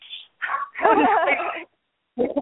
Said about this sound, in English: Wow. Good job. Even the dog barked on that one.